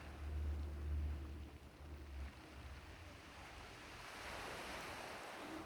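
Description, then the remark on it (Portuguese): Ocean waves wash steadily onto a sandy, sunlit shore in a broad, continuous roar, with a low rumble and light wind noise, swelling slightly toward the end. No one speaks. “O oceano está a poucos metros à sua frente, refletindo o sol radiante, enquanto as ondas batem na terra firme. As ondas vindo e voltando na sua vastidão de onde elas vieram.”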